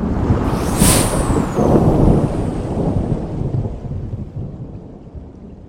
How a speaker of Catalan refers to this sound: es va esfumar com una esperitada sota els llamps i els trons de la tempesta.